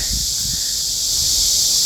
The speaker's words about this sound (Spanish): Y aquí os dejo escuchando las cigarras, que como ya sabéis, en verano en estas regiones son de potencia ultra extra.